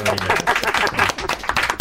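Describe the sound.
Audience applause for a guest: a dense, steady patter of many hands clapping for about two seconds, with voices mixed in underneath.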